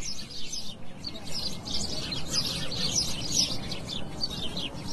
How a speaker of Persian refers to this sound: تو بهار گنجشکا جوری جیک جیک انگار پرنده های فضایی هم.